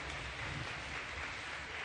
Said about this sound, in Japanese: それでは大きな拍手でお迎えください。